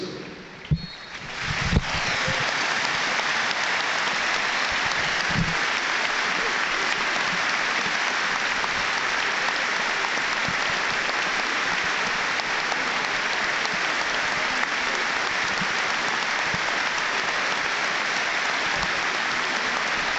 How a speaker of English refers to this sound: greatest ever footballers, Sir Tom Finney, who sadly passed away last week. The minute's applause will start and end on the referee's whistle.